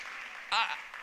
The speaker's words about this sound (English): I want to hear some clapping in this house for, man, small group